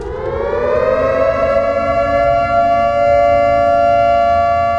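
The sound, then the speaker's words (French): A civil defense alarm siren in the Bronx, New York, wails steadily, its rising tone settling into a loud, sustained howl that fills the whole stretch with no voices present. “Une alarme retentit.”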